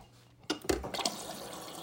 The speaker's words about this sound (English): Drink some water. Drink some water.